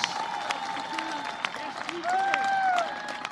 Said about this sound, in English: And the crowd went wild.